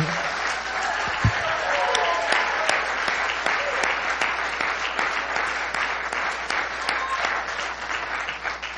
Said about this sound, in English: This would be a great time to stand, everybody except them. Come on, just give him a good hand clap.